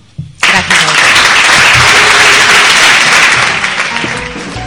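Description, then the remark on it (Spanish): A burst of applause thanking a speaker for her talk starts abruptly and continues steadily as dense, crackling clapping from many hands, loud and sustained, easing slightly toward the end. “te despedimos eh, eh, dándote las gracias con este aplauso.”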